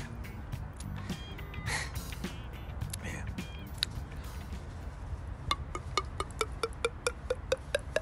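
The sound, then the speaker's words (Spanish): A voice imitates wine or another drink glugging as it is poured into a bottle or glass: a quick, steady run of wet mouth pops and clicks, fairly soft, over a quiet hiss. No words are spoken. “El único que creo que me sale más o menos es como cuando uno echa en una botella, en un vaso, vino, bebida, suena más o menos así,”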